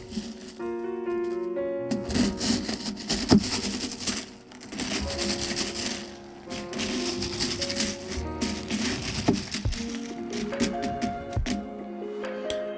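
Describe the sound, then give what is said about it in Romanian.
Ice cubes clink and rattle against a glass as a drink topped with Spuma Nera, an Italian carbonated drink based on chinotto, is stirred, a steady run of quick bright clicks with faint ringing glass tones underneath, no talking. “Mai amestec puțin”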